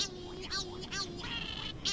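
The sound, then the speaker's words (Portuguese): Cory's shearwaters in the Azores call in a series of harsh, nasal, wailing bursts, about four or five in quick succession, loud over a steady low background hum. “Os cagarros são uma das espécies comuns mais observadas nos três arquipélagos.”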